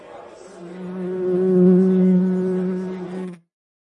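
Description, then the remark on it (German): A fly buzzes with a steady, droning hum that swells louder in the middle as it passes, then cuts off abruptly after about three seconds; the fly had landed on the microphone's record button. “Die Fliege ist zurück?”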